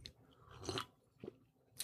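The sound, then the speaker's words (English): Sounds of someone taking a sip of a drink: a few soft, wet mouth and swallowing noises spaced across a quiet moment, with no talking. “Just a sip is not doing the trick.”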